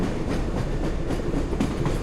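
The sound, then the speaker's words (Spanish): A train starts to move out of a station, rolling along the tracks with a loud, steady low rumble and a few irregular clattering beats from the wheels, with no voices. “El tren empezó a moverse, chirriando a lo largo de las vías.”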